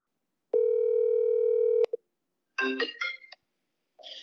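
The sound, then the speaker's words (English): An outgoing phone call: a steady electronic phone tone holds for over a second, cuts off with a click, then short warbling bursts of tones follow, like a line connecting. “We're calling him right now.”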